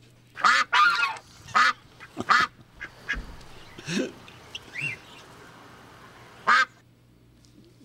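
A duck quacks loudly several times, a quick cluster of nasal calls early on, then scattered quacks with a final lone one after a quiet pause, with a hum running underneath.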